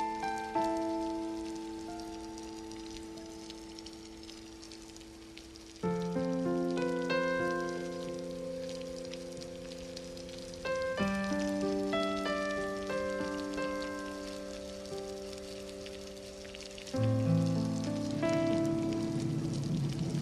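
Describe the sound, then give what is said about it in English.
Steady rain hisses in the background beneath slow, sustained piano chords of a song set to thunder and rain, changing every few seconds; no distinct thunderclaps stand out, and nobody speaks. “Well, I've been working on this one song in particular that I think people will really enjoy, and uh, it's actually set to thunder and rain.”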